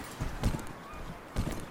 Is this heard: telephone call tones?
no